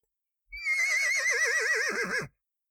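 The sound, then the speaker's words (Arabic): A single horse whinny lasting nearly two seconds, loud, with a quavering, wavering pitch that drops and trembles toward the end before cutting off, with no voices. “لا أريد أن يأكلني حصان وتدحرجت عبر الطريق قال الحصان”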